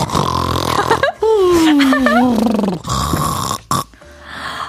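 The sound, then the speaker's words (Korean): A loud, drawn-out snore of a man asleep in a car, probably voiced by a person imitating it. It rasps and grunts, then slides down in pitch over a couple of seconds, with a steady hum underneath. “아, 코를 그렇게 굴면서 잡니다.”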